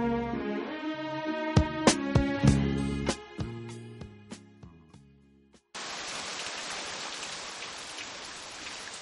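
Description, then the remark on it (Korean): Tinkling melodic harmonica music with plucked accents fades out, then steady, hissing rain takes over abruptly and continues evenly to the end, fairly loud. “어, 음악 마지막에 또 비 오는 소리도 들을 수 있거든요.”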